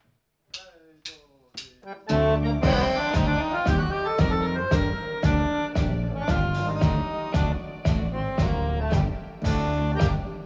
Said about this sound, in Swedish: Och vi ska bjuda på en tango som jag har skrivit